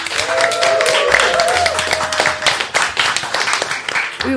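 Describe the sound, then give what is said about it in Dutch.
A live studio audience in Studio Kookhaven claps steadily, a dense patter of many hands that stays loud for the full few seconds, with a faint tonal whine and a few voices mixed in. “Ballet Croquet wordt opgenomen voor een live studio publiek.”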